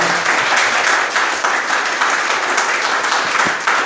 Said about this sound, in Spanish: Denle un aplauso al Señor, por favor, esta mañana.